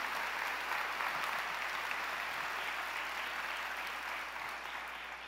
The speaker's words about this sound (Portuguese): Se você crê nisso, aplauda Ele, é a Ele, Deus dos impossíveis.